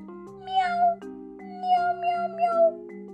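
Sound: cat meowing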